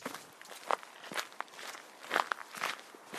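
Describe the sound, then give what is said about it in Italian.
Irregular footsteps crunch and scuff over slippery stones and mud on a steep trail from San Sebastian to Orio. The steps keep a steady hiking pace and are moderately quiet, with a few sharper scrapes and no voices. “Scarpinando per i sentieri scoscesi, e scoscesi è dire poco, che da San Sebastian conducono a Orio, tappa intermedia prima della destinazione Sarauz, ero concentrato sulle pietre viscide, sui torrentelli di fango, sulle cadute da evitare, insomma.”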